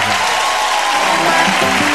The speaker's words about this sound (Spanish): Claro que es un aplauso para él.